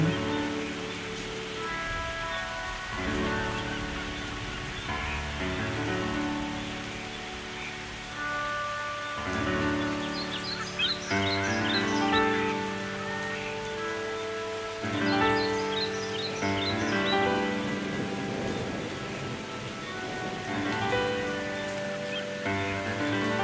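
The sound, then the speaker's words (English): Steady rain patters continuously in the background, a soft hiss that runs through the whole stretch beneath gentle, sustained tonal music, with no voices present. “Focus on the rain it washes away the excesses, cleansing all of the surfaces of the earth that it reaches.”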